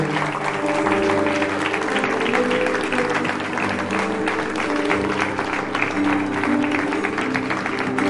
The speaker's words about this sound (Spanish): Dale aplauso al Señor.